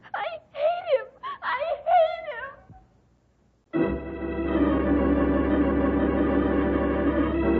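A girl cries and wails in several rising, quavering sobbing bursts for a few seconds, then falls quiet as a steady, sustained musical passage begins.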